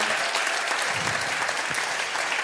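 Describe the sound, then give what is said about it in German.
A crowd in Austria applauds steadily to thank ministers for their service, a dense, continuous wash of many hands clapping at an even loudness for a couple of seconds, with no voices standing out. “Hey, lass uns ihnen mal einen mächtigen Applaus geben.”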